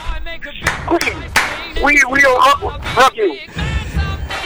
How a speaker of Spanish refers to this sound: Vamos a la palmas. Ahí va la palma.